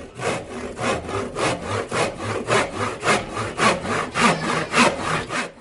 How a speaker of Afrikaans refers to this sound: Wanneer jy dink aan 'n saag, dan is hierdie mos nou die geluid of klank wat by jou opkom.